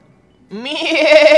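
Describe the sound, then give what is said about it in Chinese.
A single lamb bleat starts after a brief silence, rising in pitch and then holding a loud, wavering, nasal tone until the end, with no one talking. “什么地方传来了可爱的叫声？米莉和茉莉问：“巴蒂，那是什么？”是我的孩子。”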